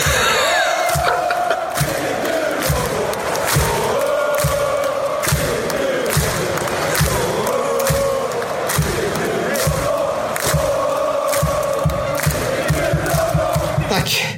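A supporters' section chants in unison, a dense wall of voices rising and falling in a sung melody, punctuated by steady, heavy drum beats or claps that keep a driving rhythm throughout.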